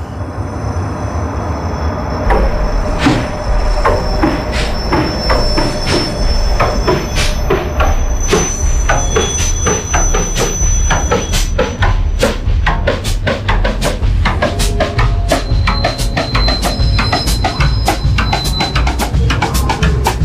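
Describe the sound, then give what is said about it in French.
A train rolls steadily along the rails, its loud continuous rumble broken by rapid, irregular metallic clicks and knocks, with thin high-pitched wheel squeals drifting in and out. “Et, c'est vraiment le, voyage dans, son état euh, basique, un peu morne, mais ça permet de faire quelques digressions, comme euh, Hocus Pocus avec le train.”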